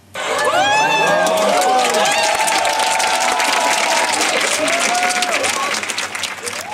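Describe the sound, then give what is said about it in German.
A large audience in a full cinema hall, the Kinotheka in the Kulturpalast, watching the Same session on screen, bursts into sustained applause with scattered cheers and whoops, the clapping dense and loud throughout before easing slightly toward the end. “Ja, und das war jetzt nicht im Same oder bei einem Konzert oder so, sondern im Kino, nämlich in der Kinotheka im Kulturpalast.”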